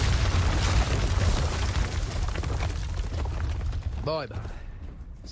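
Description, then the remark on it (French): A loud video game cannon blast, fired to open a door, erupts into a deep, rumbling explosion that roars for several seconds before thinning out, with a brief voiced sound near the end. “Oh mince Comment t'es passé toi en fait ce canon il sert à ouvrir cette porte.”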